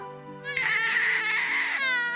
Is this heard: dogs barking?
no